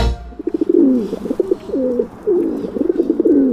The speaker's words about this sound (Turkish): Güvercin sesiyle başladık.